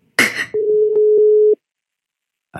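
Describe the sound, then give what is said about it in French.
A short rustling burst, then one steady, clear ringback tone of an unanswered telephone call sounds for about a second before stopping. Silence follows, with another noise starting just at the end. “Un téléphone. Il sonne dans le vide.”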